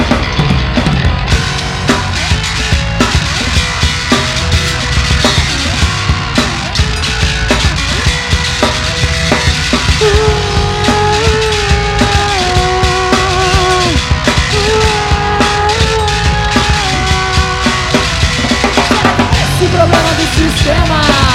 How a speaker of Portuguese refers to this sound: Gente, então vamos encerrar isso aqui com música que é, é o que a gente quer ouvir.